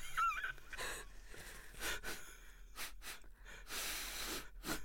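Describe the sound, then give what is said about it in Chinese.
Someone blows their nose several times in a row, each a harsh, breathy burst with a faint honking edge, fairly loud and coming at a loose, uneven rhythm with no talking. “哇，擤鼻涕的小乐趣，”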